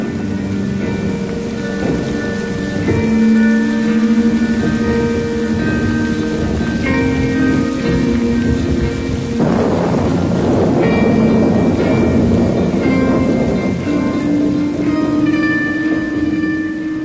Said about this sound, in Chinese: 风没有停，雨也没有停。